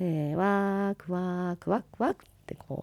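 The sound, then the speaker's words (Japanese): A voice imitates crow caws, as crow-role dancers call in the Ainu whale dance of the Shiranuka region, drawing out two long harmonic calls, then three short clipped caws in quick succession, clear with no other sounds. “あのカラスの鳴き声をね言いながら寄ってきてちょっと肉くれってこう周りをワイワイしているとあの解体しているおばさんたちがお肉のね切れ端をポンと後ろに投げるんですよ。”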